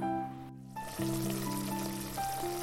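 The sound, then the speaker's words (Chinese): An egg sizzles in a frying pan as breakfast is made, a steady crackling hiss that drops out briefly, then continues over a few sustained musical notes that shift in pitch. “乌龟慢慢忙着煎蛋做早餐，再给我一分钟。”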